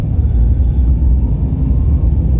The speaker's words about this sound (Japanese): 人の行き来もそうでもないし車がなんせ信号で止まってないですねずっとこれ一個もこう車を止めてないというかまあゆっくりでも動いてはいるんですよ